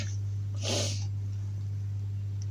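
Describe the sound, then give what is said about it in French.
A cat named Spooky makes one short, breathy, noisy sound, something like a snort or sneeze, over a steady low electrical hum with no talking. “C'est pour ça que les chroniques arrivent en retard, parce que les chats se couchent dessus.”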